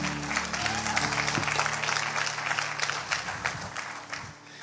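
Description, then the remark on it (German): An audience applauds the band with dense, sustained clapping that stays steady throughout, with a low sustained musical tone underneath early on, then tapers slightly at the end. “Wir dürfen euch gerne einen dicken Applaus geben.”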